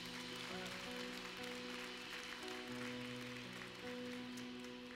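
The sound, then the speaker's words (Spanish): A church crowd claps steadily for three people who have just given their lives to Christ, a dense, continuous patter of many hands, with sustained keyboard chords playing underneath at a fairly low overall level. “Vamos sale un fuerte aplauso a esas tres personas que acaban de rendir su vida a Cristo.”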